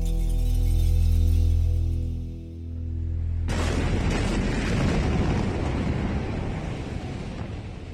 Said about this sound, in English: This was the terrifying moment. A massive explosion sent shockwaves across the Lebanese capital of Beirut. More than 100 people were killed and thousands wounded in the Tuesday explosion at the city's cargo port,